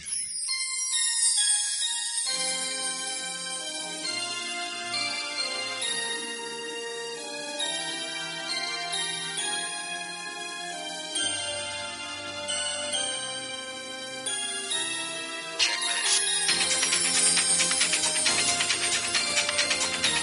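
A pop song plays on its own, opening with a bright, chiming instrumental intro that builds steadily and grows fuller and louder toward the end.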